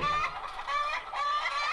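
A hen clucks in a steady, busy stream of short, bright calls, fairly loud, with no voices or other sounds around it.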